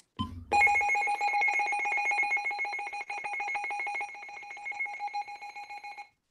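A weather alert radio, activated as a demonstration and set off by a signal from the weather service, blares its alarm: a loud, shrill, steady electronic tone with a faint buzzing flutter, held unbroken for about five seconds before cutting off abruptly. No one speaks.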